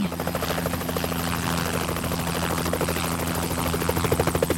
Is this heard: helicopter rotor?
yes